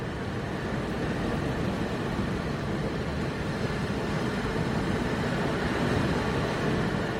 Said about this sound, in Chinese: 然后你们就能听到这个海浪，我哎呀，我现在没怎么穿衣服，你们就听听看。